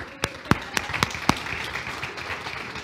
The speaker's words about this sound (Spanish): Pero ya vas, eso, denle un aplauso allá.